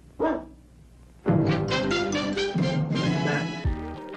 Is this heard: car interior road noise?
no